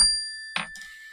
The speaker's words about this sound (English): Mindfulness, let's take a mindfulness breath. Ready? When you hear the bell, just take a deep breath.